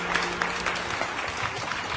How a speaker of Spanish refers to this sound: Gracias, gracias público por aplaudir.